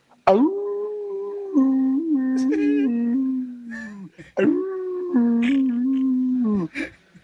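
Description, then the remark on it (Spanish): A man's voice imitates a coyote howl twice, each a long, sustained wavering cry that rises sharply at the start, loud with a brief pause between them. “quiero que me hagas el amor como coyote, mi amor.”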